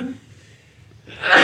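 After a moment of quiet room tone, one sharp, loud sneeze bursts out, a single explosive blast at the very end.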